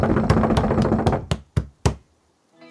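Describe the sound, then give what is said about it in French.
Someone pounds a door with kicks and punches: a rapid string of about seven loud thuds over a rumbling din, slowing to a few spaced blows before stopping. “Se rendant compte que frapper ne servait à rien, il se mit en désespoir de cause à donner des coups de pied et de poing dans la porte.”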